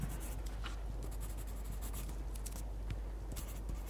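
Pencil tip scratching across paper in quick, irregular strokes, a steady dry hiss broken by brief sharper scrapes, with no voices.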